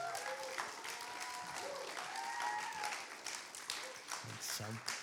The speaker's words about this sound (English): Amen. Could we give a round of applause?